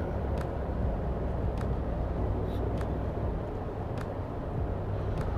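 Steady, dense low rumble of road and engine noise from inside a moving car, continuous throughout, with a few faint brief ticks; no one speaks.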